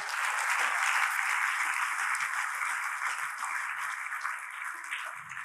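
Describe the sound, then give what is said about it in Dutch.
An audience applauding God steadily for several seconds, a dense, even wash of many hands clapping that stays fairly loud throughout and fades only slightly toward the end. “Wil God een applaus geven?”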